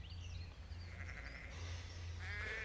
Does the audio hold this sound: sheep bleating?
yes